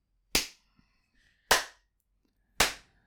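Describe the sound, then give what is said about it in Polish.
Three sharp hand claps, made to sync a recording, evenly spaced about a second apart, each a loud, crisp snap with a quick decay into near silence. No one speaks between them. “ale wiesz co, zanim odklaszczesz, bo widzę co byłeś zrobić”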